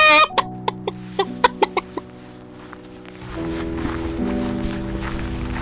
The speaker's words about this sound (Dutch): Daar staan kippen. Die horen er ook bij. Wat voor kippen zijn het eigenlijk? Het zijn eh, Noord-Hollandse blauwe. Al het groenafval wat we hebben, zowel uit het park als eh, ook eh, uit onze eigen keukens, dat wordt aan de kippen gevoerd.